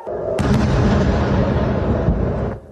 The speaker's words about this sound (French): À Tel Aviv, comme dans plusieurs villes israéliennes ce matin, les sirènes d'alerte retentissent. On entend même des bruits d'explosion.